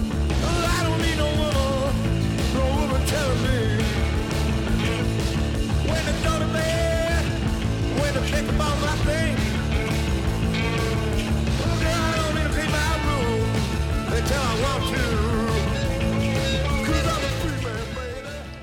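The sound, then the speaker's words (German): Dense, loud funk-rock music plays throughout, with wailing, screeching saxophone lines riding over pulsing synthesizers and a driving beat, fading slightly at the very end. “Auf … hingegen propagiert Frontmann … über kreischenden Saxophonen und Psych-Funk-Synthesizern I don't need no woman”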